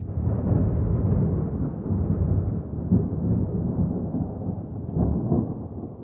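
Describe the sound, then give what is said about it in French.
Deep, continuous rumbling thunder rolls for several seconds, steady and heavy, with a couple of slightly louder swells, and no voices. “Et puis, le tonnerre grondait ce soir-là.”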